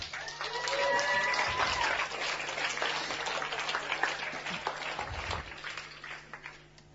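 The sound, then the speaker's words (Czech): An audience applauds steadily for several seconds to welcome a guest, dense overlapping claps, with a few faint whistles or cheers early on before the clapping gradually thins out. “A já tady mám hosta, jmenuje se David Novák, pojďme ho přivítat.”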